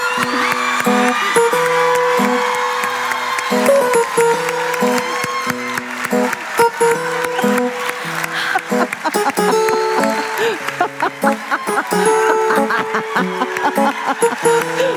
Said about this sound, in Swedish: Varm applåd!